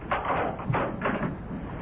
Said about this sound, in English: And I was having all sorts of melancholy thoughts when there was a knock on my door one morning.